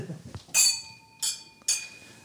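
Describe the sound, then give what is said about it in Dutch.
Wine glasses clink together three times in quick succession in a toast, each bright strike leaving a clear, sustained ring that hangs in the air, fairly loud. “Ching ching. Ching ching.”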